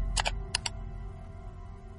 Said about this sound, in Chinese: 收件箱里有一封邮件，是新的。林天点了一下鼠标